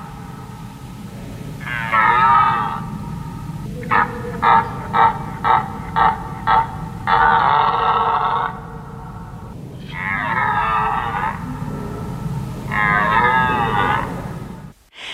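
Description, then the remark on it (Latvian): A red deer stag roars repeatedly: long, throaty bellows alternating with a quick run of short, rhythmic grunts, loud, with a low rumbling background throughout. “Tālāk ieskatām stāvbrieža balss”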